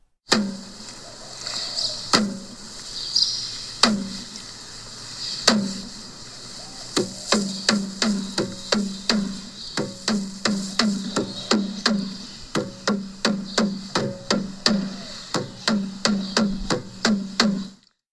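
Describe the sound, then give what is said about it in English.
A pahu drum is struck alone with sharp, resonant hits, a few slow scattered beats at first, then a steady, quicker rhythm that continues, over a faint constant background hiss. “Early one morning, while Pele, the fire goddess, and her sisters were on their way to Puna, they heard the beating sounds of a pahu.”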